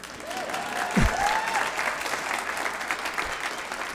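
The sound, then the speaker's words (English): An audience applauds steadily, a dense wash of many hands clapping at an even level throughout, with a brief low thump and a faint whistle-like tone rising early on. “yeah, you can clap. It's okay.”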